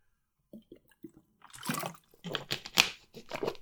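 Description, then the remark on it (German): Drinking sounds as a person takes a big gulp of water: a few soft, wet swallows, then a longer stretch of gulping and water sloshing near the mouth, with no talking. “So einmal einen großen Schluck Wasser, einmal ganz viel Luft nehmen für meinen Kopf”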